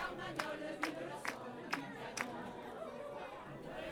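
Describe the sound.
A dense crowd of voices chatters, laughs, calls out and chants together at a protest, the chants intertwining, with several sharp percussive hits roughly every half second cutting through the steady hubbub.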